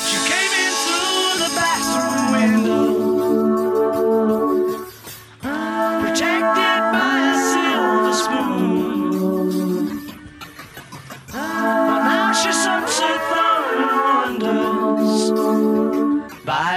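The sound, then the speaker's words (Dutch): An ADT-doubled lead vocal, thickened into a layered stereo sound, sings over a full band with backing vocals joining in; the music is loud and continuous, with brief dips between phrases. “En je hoort hem zijn eigen stem dubbelen in stereo.”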